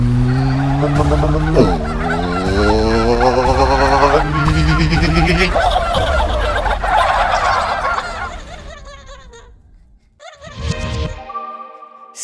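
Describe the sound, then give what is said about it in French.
A turkey gobbles loudly in a long, rapid, warbling burst lasting several seconds, followed by a brief pause and a shorter final gobble. “Seigneur Dindon, merci d'être avec nous.”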